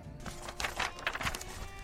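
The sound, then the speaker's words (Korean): Paper being folded into a ddakji: a few quick, crisp crinkling and creasing bursts in close succession, moderately loud, with no talking. “쓱쓱싹싹 이렇게 접어가지고 완성.”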